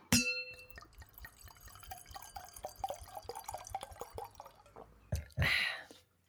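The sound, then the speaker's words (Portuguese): A single bright clink of wine glasses as two friends toast rings out clearly at the start and fades over a moment, followed by soft trickling, dripping liquid sounds and a brief rustle near the end. “Vamos um brinde, amiga, para a gente começar a nossa discussão sobre as boas mulheres da China.”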